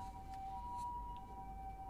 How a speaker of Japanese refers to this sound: 今ピーポーピーポーって聞こえるかな 近くでなんかすごい救急車が走ってる